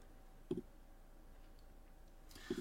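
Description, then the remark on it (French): Two soft, separate clicks about two seconds apart, a computer mouse being pressed while someone searches on a computer, against a quiet background hum. “t'entends que je clique, ouais. ouais, vas-y, euh, oui, j'entends que tu cliques.”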